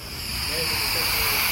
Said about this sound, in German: Dieses Zischen, was ihr hier hört, ist eine Stickstoffflasche, die ist mit Absicht nicht dicht, damit sie uns nicht um die Ohren fliegt.